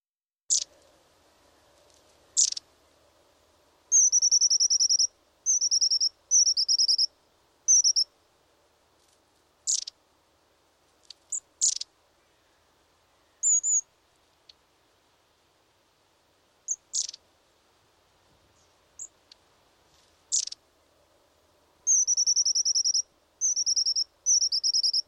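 Long-tailed tit calls: thin, very high-pitched notes in scattered short bursts, with several longer buzzy trills in between, clear against a quiet background.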